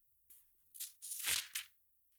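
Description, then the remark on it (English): A crisp paper book page turn: a few quick rustles and a papery swish peaking in the middle, then a final soft flick as the page settles, with no voices. “Page turn.”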